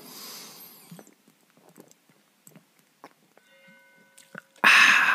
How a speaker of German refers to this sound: dafür habt ihr das Glockengeläut.